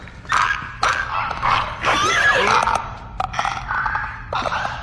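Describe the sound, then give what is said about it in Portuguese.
A monstrous infected creature makes a series of raspy, clicking, gurgling growls in short bursts, loud, with brief pauses between calls and a low rumble underneath. The sound breaks the silence as people step off a train in a place overgrown with grass and vines. “E quando vocês vão caminhando caminhando e, e saindo finalmente do trem, o silêncio é quebrado por um estalar.”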